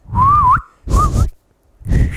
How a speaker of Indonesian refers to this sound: Uh, ada siul ya. Ada siul ya.